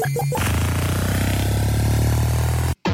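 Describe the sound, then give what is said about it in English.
A retro arcade video game sound effect from Joust: a few quick electronic blips, then a loud, buzzing synthesized tone that holds steady before cutting out briefly and returning at the end. No one speaks. “Speaking of episode one, there's a little uh, little joust sound there.”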